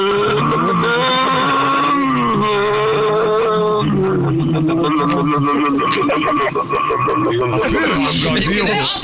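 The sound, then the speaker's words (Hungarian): Several people vocally imitate how a wheezy old car sounded, producing loud, continuous groaning and sputtering tones that rise and fall for the whole stretch. “Adjátok még egy kicsit, mutassátok, hogy szólt?”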